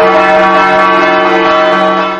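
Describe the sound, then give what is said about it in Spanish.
Church bells of the church of Nuestra Señora de la Asunción, which has 11 bells, ring out loud, a dense wash of overlapping metallic tones with a steady sustained hum beneath, continuing throughout without a break. “La Hermandad del Santísimo Cristo de la Vega ha puesto en marcha una campaña de restauración de las campanas de la iglesia de Nuestra Señora de la Asunción, y es que en tiempos pasados nuestros mayores acordaron colocar 11 campanas que dan esplendor”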